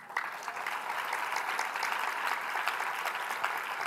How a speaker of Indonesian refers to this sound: Mana tepuk tangannya?